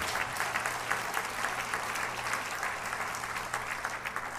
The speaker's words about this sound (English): Can you clap your hands unto him? Praise God.